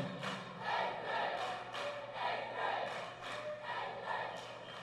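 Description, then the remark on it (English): A group of eighth-grade children at camp cheering loudly and continuously, their high voices blending into a steady roar that swells in repeated pulses, like rhythmic chanting, with no single voice standing out. “I hear the eighth grade cheering.”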